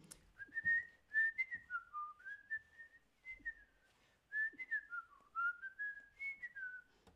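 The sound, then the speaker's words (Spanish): A clear whistled melody, fairly loud, the tune that people on bicycles whistle at the start of a Spanish TV series, with gliding notes rising and falling in short phrases and a brief pause midway, with no one talking. “Había una serie española que empezaba con gente en bicicleta silbando esa melodía.”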